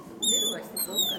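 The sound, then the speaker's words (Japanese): A person imitates a bird call with two high, squeaky whistled phrases, fairly loud, separated by a brief pause, with faint low murmuring underneath. “ドアじゃないですよ 鳥なの”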